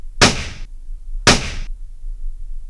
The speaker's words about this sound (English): you hear this gunshot go off. Yeah. And the moment it does, the figure collapses to the ground.